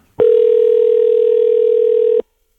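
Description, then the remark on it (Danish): A single steady telephone ringing tone, an outgoing-call ring to England heard down the line, sounds for about two seconds at a constant pitch, then cuts off into silence. No voices. “Den ringer i hvert fald nu, der.”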